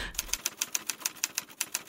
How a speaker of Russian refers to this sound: Стучит машинка, и губы Марии Петровны продолжают некрасиво двигаться и шепчут эти трудные слова в длинном-длинном проекте канализации С. Петербурга.